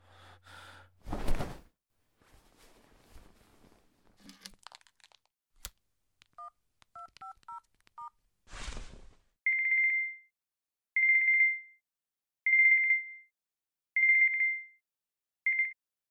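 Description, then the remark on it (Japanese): A quick series of short phone keypad beeps is dialed, followed by five steady, evenly spaced ringing tones. A few breathy rustles and a sharp burst of noise come before the dialing. “急に電話ごめん”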